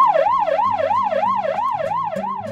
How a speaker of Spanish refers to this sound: En galego chamamos así as bucinas que nos barcos, coches de policía, ambulancias, etc., se empregan para facer sinais acústicas.